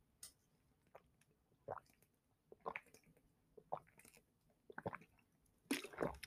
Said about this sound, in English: Excuse me, I gotta drink some water.